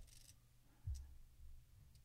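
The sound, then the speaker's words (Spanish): A quiet, brief click of the centre button being pressed to save a document after selecting save in a menu, a single soft tap with faint mechanical ticks around it and no talking. “Ahí está en salvar y le doy al botón del centro”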